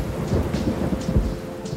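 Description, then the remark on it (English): Steady rain hisses throughout while deep, rolling thunder rumbles underneath in a few low surges, fairly loud, with no voices. “Rainy nights and warm blankets”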